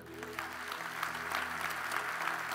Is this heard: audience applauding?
yes